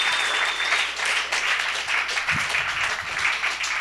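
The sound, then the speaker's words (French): A crowd, asked to applaud, claps steadily, many hands clapping in a dense, continuous wash of noise that holds its level throughout without fading. “Je, je, sais pas, euh, applaudissez, sinon c'est juste, c'est juste fucking awkward.”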